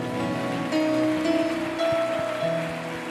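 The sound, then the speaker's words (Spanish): A church audience applauds loudly for the Lord in a dense, steady wash of clapping that lasts throughout, with sustained organ-like tones and a few low thumps beneath it. “Dele fuertes aplausos al Señor.”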